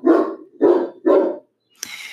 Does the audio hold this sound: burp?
no